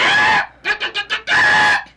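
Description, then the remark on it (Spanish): A hen clucks loudly, a drawn-out call followed by four quick, clipped clucks and then another long call, with no other sounds around it. “y tía gallina Toqueando, repetía.”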